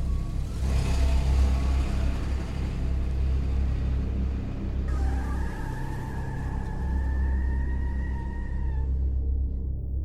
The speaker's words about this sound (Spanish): Se subieron al coche de Charles y salieron a toda prisa abandonando la escena del crimen.